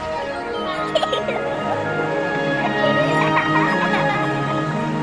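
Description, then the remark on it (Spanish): A crowded chorus of gulls and cormorants calling over one another from nests on rocky sea cliffs, harsh cackling and squawking cries overlapping steadily at moderate volume, like a busy seabird colony. “Cormoranes y gaviotas ríen sus bromas.”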